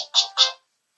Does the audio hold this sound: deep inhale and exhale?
no